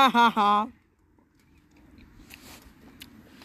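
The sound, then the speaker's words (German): A brief voiced sound up front, then soft smacking and chewing noises, wet and irregular, continuing quietly to the end, made deliberately as live chewing ASMR. “Auf zu schmatzen.”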